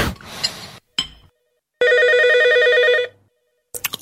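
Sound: telephone ringing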